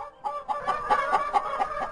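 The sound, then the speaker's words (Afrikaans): A flock of farm chickens clucks busily, a quick series of throaty, overlapping calls pulsing in a steady rhythm, with a rooster crowing and no talking. “Maar New Harmony se voëls is raserig.”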